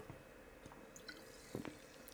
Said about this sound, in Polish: Łyczek wody.